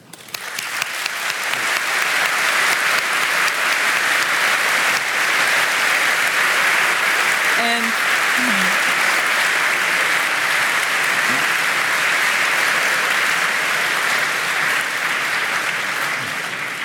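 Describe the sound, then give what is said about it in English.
Sustained applause from a large audience for the event organizers, Radboud Reflects, a dense, steady wash of clapping that swells in quickly and holds at full strength for over fifteen seconds, with no talking over it. “So please a warm applause for them.”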